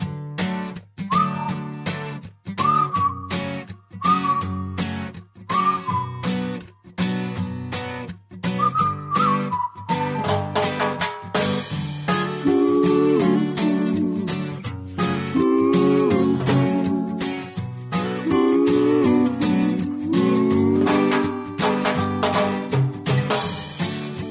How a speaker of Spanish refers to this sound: Ok, entonces vamos a escuchar esta, esta canción. Pongan muchísima atención y ahorita, si mientras nos pueden ir escribiendo, no sé, cómo vayan escuchando la canción, para poder leer aquí sus comentarios. Vamos a escucharla.